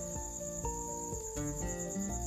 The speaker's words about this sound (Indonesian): karena aku masih ke distract dengan suara jangkrik dengan suara kucing kalau bikin pagi suara burung, suara ayam. Bikin malam kayak gini